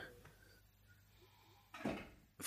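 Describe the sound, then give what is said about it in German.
A neighbour's door slams shut once with a heavy, booming thud that rings briefly, standing out against a quiet background with faint noise. “Boah, mein Nachbar knallt mit seiner Tür, geiler Typ.”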